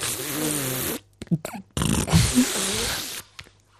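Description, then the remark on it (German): A voice imitates a fart with two loud, raspy blasts: a sustained buzzing one, a short sputtering pause, then a longer spluttering burst that trails off. “Also da dürfte, also wenn das Furzgeräusch so ist, dann muss es ja eher so gewesen sein.”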